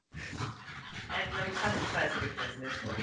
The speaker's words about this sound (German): Was ist mit meinem Hund los? Ja, ist denn zu viel von deinem Essen gekriegt?